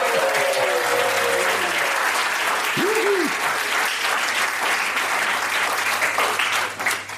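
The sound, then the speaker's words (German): A live crowd in Angie's Nightclub applauds steadily for several seconds, dense clapping mixed with cheers and whoops, one rising shout standing out briefly above the ovation. “Damit wir nicht flunkern, müssen wir einmal kurz hören, sind denn auch Leute da hier in Angie's Nightclub?”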